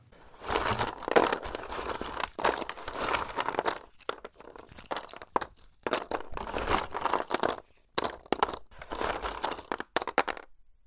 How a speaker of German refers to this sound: Stattdessen wühlen wir im Staub. Ungefähr so.